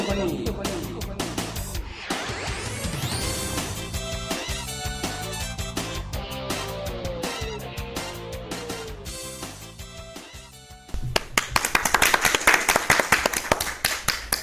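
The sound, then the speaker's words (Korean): Music with voices over it gives way to a burst of loud clapping from a studio audience at a night-time show recording around 11 pm, many hands beating in a dense, rapid patter that continues to the end. “박수 소리가 커요 오늘은.”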